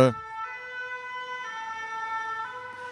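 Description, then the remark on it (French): A fire engine's two-tone siren wails steadily as it passes outside, alternating between high and low notes about once a second, sounding muffled, with no one talking. “Les pompiers.”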